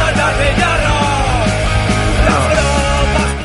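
Loud, harsh shouting voices over a dense, bass-heavy backing, sustained for a few seconds before trailing off slightly at the end.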